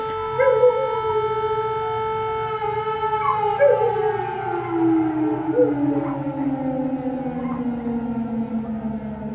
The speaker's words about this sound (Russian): Я показывала ребятам, говорю, смотрите, у вас тоже вот так вот, или только мои собаки местные воют на сирену, они подхватывают ее.